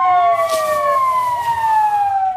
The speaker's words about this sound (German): Und immer wieder Krankenwagen und Löschfahrzeuge, die sich ihren Weg durch die Trümmer bahnen.